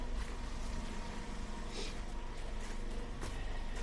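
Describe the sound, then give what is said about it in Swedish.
A garbage truck engine idles steadily behind a walker on Västerlånggatan in Gamla stan, a constant low rumble with a faint hum, filling the whole stretch with no voices over it. “Jag ska gå lite snabbare för det är en eh, sopbil bakom mig som jag ska försöka springa ifrån så jag, vi slipper det ljudet.”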